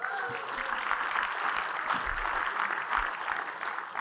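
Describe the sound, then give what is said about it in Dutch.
An audience applauds the person who coordinates all the events, a dense, steady wash of many hands clapping that holds at an even, fairly loud level for about four seconds with no talking over it. “Zullen we Marion ons een applaus geven?”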